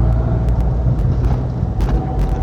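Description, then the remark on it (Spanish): Steady low-frequency rumble fills a car cabin while driving, recorded on a phone's built-in microphone, a constant loud drone with faint road hiss and occasional brief clicks above it, no voices present. “Hombre, el tema de la grabación es mucho más cómodo aquí en el coche, por eh, tengo que estar pendiente de menos cosas, hay menos ruido”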